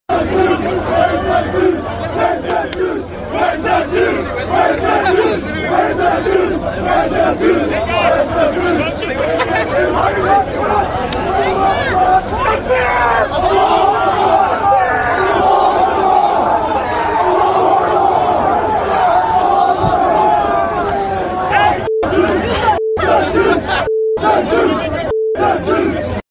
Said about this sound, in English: This is a crowd atop the Sydney Opera House chanting "Gas the Jews, F the Jews." This was from October 9th.